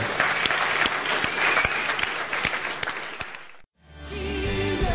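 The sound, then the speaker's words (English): A church audience at the Bridge Church claps steadily in praise of God at the end of a service, a dense wash of many hands with a few sharper individual claps standing out, before the applause cuts off abruptly and gives way to soft music. “Come on, let's clap for him.”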